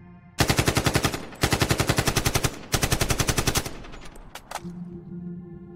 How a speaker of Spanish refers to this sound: sacaron sus armas y comenzaron a dispararle.